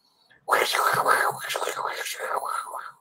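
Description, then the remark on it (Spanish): A voice imitates the crackly static heard on a phone line when a dial-up internet cable was connected, a harsh hissing rasp sustained for about two and a half seconds with some wavering, fairly loud. “Que tenías que conectar un cable y cuando conectabas el cable, tu teléfono se escuchaba,”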